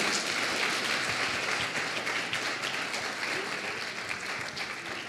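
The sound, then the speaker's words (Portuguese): A crowd applauds steadily for about five seconds for the people who responded, dense overlapping claps filling the space and tapering slightly toward the end, with a faint murmur of voices beneath. “quero palmas para esse pessoal que respondeu aí, por favor.”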